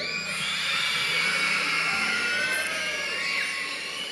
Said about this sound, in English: If you're an elementary school kid, you have permission to scream in church when I count to three, all right? Here across the campuses. One, two, three. Let me hear you.